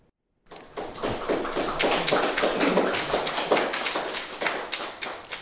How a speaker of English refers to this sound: See, one of the ideas here by uh, reading three stories is they get to hear applause three times.